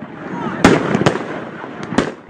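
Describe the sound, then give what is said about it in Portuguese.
Fireworks fired by protesters toward the main building of the Supreme Federal Court in the Praça dos Três Poderes, Brasília, go off in a few sharp, cracking bursts at irregular intervals, loud, over a constant rumble of outdoor noise with indistinct voices in the background. “Horas depois de manifestantes bolsonaristas dispararem fogos de artifício na direção do prédio principal do Supremo Tribunal Federal, na Praça dos Três Poderes, em Brasília”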